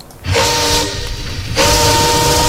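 A train rumbles loudly with a steady, hissing roar, and a sustained whistle tone sounds over it in two stretches, fading briefly in the middle before swelling back up.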